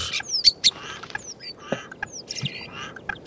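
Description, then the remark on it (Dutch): A common starling sings a rapid, jumbled medley of sharp whistles, clicks and rattling chatter, mimicking the calls of other bird species, clear with no one talking. “Ja, het is, het is een spreeuw. En je hoort tegelijkertijd dat hij allerlei andere soorten nadoet.”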